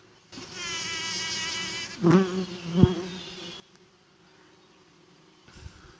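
A steady buzz of bees around kiwi flowers hums continuously for about three seconds, with wavering harmonic overtones as the insects move, their legs full of pollen, then cuts off abruptly into quiet with a faint rustle at the end.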